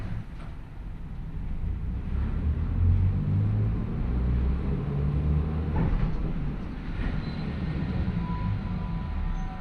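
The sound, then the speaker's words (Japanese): A Manyo Line tram departs Takaoka Station in Japan, bound for Koshinokata, its steady low rumble and motor hum filling the space, with a few faint clacks of wheels over rail joints. No one speaks. “耳で楽しむ鉄道旅 万葉線 高岡駅→越ノ潟”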